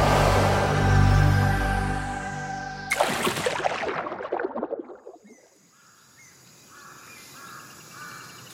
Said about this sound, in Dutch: Je denkt misschien, hé, hey, ik hoor bosgeluiden. We zitten helemaal verkeerd. We waren toch op expeditie Oceaan? Jij hebt ook helemaal gelijk. Maar dit is een mangrove. Dat is een schemerig moerasbos langs subtropische en tropische kusten.